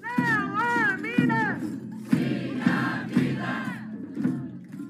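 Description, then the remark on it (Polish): A crowd of local residents protesting a lithium mine development chants loudly in a steady, repeated rhythm, voices rising and falling together in unison with strong emphasis on each beat. “Protestują lokalni mieszkańcy, którzy uważają, że rozwój kopalni zniszczy środowisko naturalne.”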